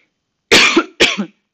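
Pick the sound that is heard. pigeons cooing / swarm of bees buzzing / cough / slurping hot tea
cough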